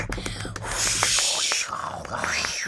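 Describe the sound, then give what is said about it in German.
Hands rub together to imitate rain without any water: a soft, steady, papery hiss that swells slightly in the middle, with breathy blowing imitating wind and faint voices alongside. “So klingt Regen, ganz ohne Wasser.”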